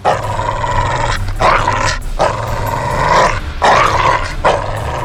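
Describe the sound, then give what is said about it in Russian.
A shepherd dog growls and snarls loudly in sustained bursts with brief pauses between them, rough and aggressive, as it fights a man on the ground, with no voices present. “Мгновение я вижу, как сквозь кусты пес бежит на мою жену с ребенком.”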